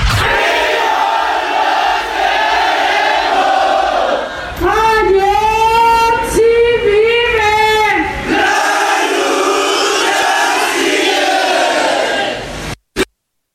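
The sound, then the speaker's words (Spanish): A loud crowd of students from the Isidro Burgos normal school in Ayotzinapa, with some parents of the 43 missing students, chants and shouts in unison in protest, with a stretch of rising, rhythmic collective yelling in the middle before the roar continues, ending with a sharp cutoff. “Esto que usted escucha es la protesta que están llevando a cabo en estos momentos normalistas, estudiantes de la normal Isidro Burgos allá en Ayotzinapa.”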